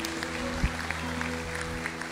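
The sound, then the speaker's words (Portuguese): An audience applauds in a steady, dense patter of claps over a sustained low musical drone, with a few sharper claps standing out; no one speaks. “Aplaude ele, eu estou sentindo ele, tá Aleluia.”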